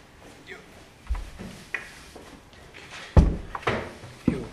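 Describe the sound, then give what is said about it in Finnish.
A door that had been left open is shut with a solid thud partway through, surrounded by a few softer knocks and handling noises in otherwise quiet surroundings. “Anteeksi, tuota, että keskeytin tuota, ja tuo, näköjään tuo ovi auki, niin sen verran häiritsi tuo liikenne omakin keskittymistä, että oli pakko käydä sulkemassa ovi, mutta jatketaan.”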